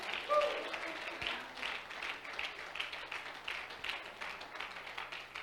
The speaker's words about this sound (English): If that's you, stand to your feet, clap your hands to God, and say, Hallelujah. Come on, shout hallelujah.